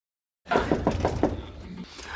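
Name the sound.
knock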